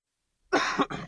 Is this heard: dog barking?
no